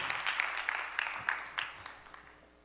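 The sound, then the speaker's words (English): A crowd applauds with a dense patter of many hands, a few sharper claps standing out, then the clapping gradually thins and fades over a couple of seconds. “Clap for these fresh young men.”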